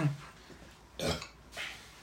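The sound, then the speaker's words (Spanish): A loud burp rumbles out around the middle, with a softer throaty follow-up just after; faint low murmuring sits underneath. “De perdido no eructes, no seas cerdo.”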